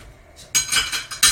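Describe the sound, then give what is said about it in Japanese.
Dishes and cutlery clatter as they are washed, in a quick run of bright, clinking knocks, several overlapping clanks over about a second, fairly loud with no voices. “食器洗う”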